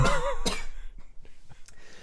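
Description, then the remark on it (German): A sharp cough from a person who is a bit ill bursts out after a brief voiced sound, followed by a few fainter, softer throat noises trailing off in otherwise quiet surroundings. “Also, falls wir zwischendurch mal husten hört, äh, ich habe keinen Bock, das rauszuschneiden.”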